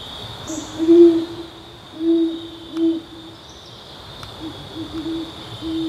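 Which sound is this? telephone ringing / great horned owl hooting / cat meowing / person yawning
great horned owl hooting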